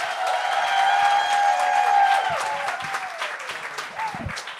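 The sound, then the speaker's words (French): A comedy show crowd bursts into loud, sustained applause for the first comedian, with whoops and high cheering shouts riding on top, the clapping dense and steady before gradually thinning toward the end. “On vous demande, euh, tout le monde, de faire un maximum de bruit pour le premier qui casse la glace,”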